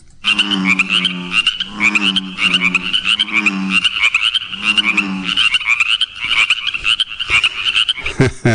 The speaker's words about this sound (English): those are bullfrogs and chorus frogs on the pond. That's a it's a very common springtime sound around here.